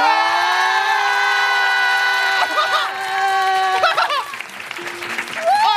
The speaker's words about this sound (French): C'est un événement La foule en délire